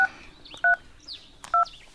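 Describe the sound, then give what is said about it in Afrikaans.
Three sharp telephone keypad tones beep at a steady, unhurried pace as someone dials a call, each a short, clear two-tone chirp, with faint warbling noise in the background between presses. “Dis net nou om te sê as hy hier was, ek bel hom gou.”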